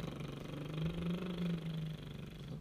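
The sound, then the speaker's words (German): A voice imitates a driving car engine, saying 'Brumm, brumm' as a singing exercise. It is a low, steady rumbling hum that swells slightly in the middle and lasts about two seconds, with no other words spoken. “Wir machen einfach mal ein fahrendes Auto.”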